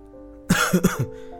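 Two quick, rough coughs in close succession, loud and throaty, like someone clearing their throat to break a silence, over a faint steady hum.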